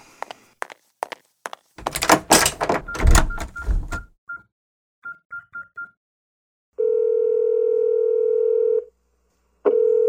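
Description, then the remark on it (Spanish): Footsteps, then a heavy door swings shut with a loud thud, followed by a few short phone beeps and a steady dial tone. No one speaks. “Cuando salga, cierra la puerta.”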